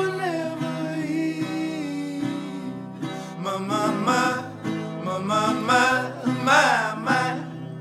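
A raw, slightly gritty lo-fi indie folk song from a poor-quality recording plays at a steady moderate level, with a wavering sung melody over sustained acoustic accompaniment and no talking.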